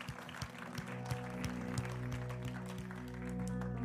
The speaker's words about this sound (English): Hey, let's just a round of applause to those that made the decision for Jesus today.